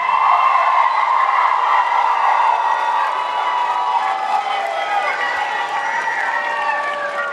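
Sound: crowd cheering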